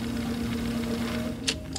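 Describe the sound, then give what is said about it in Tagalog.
A Xerox photocopier suddenly starts up again on its own and runs, humming steadily with a strong low drone and mechanical whirring, then a couple of short bright bursts of sound near the end as it cycles. “Pero hindi pa siya nakakalapit biglang umandar na naman yung Xerox machine.”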